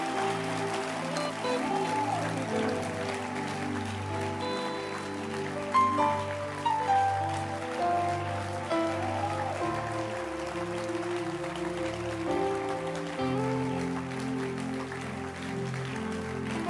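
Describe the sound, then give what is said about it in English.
An audience claps loudly and continuously for about seventeen seconds, a dense, steady wash of hand claps layered over sustained musical tones, with no one speaking. “Can your hand clap be louder tonight?”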